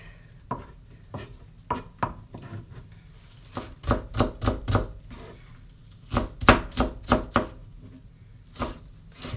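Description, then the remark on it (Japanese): A knife chops on a cutting board in uneven bursts, quick clusters of sharp taps separated by short pauses, as an onion is finely minced by chopping through it roughly many times. No one speaks. “即料理になれない感じを発揮しました今日はみじん切りにしたいと思います”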